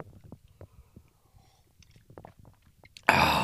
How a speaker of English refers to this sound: Hang on, hang on, got to take a sip of coffee. You know, if you've listened to previous episodes, this is my thing. Got to keep the pipes warmed up. Give me just a second.